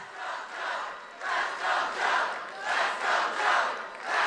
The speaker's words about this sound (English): They're cheering insulin? No, I'm saying let's go, Joe. I think. I know, but I, I think they were trying to drown hey, out the heckler.